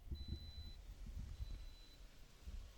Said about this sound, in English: That's that's the AC. It's hot as balls in here.